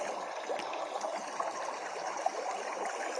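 A steady, soft trickle of stream water runs throughout, with small bubbling splashes and gurgles popping up now and then. No voices, just the continuous flowing wash.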